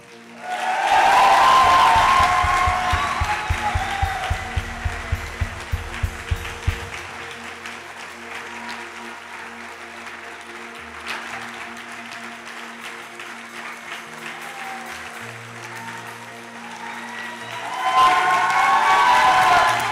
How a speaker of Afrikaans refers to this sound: Kom ons eindig hiermee en ons klap hande vir die Here.